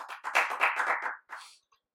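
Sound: applause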